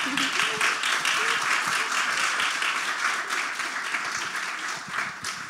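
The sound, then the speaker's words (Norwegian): An audience at Chagall in Bergen, drinking beer, wine and cola, claps steadily in dense, continuous applause that stays at an even, fairly loud level for several seconds, with faint voices mixed in underneath. “Vi klapper da.”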